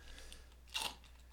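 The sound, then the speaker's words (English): Someone takes a quick sip of a Bloody Mary cocktail: one brief, soft slurping burst in an otherwise quiet moment, with no one talking. “That's the sound of me drinking my Bloody Mary.”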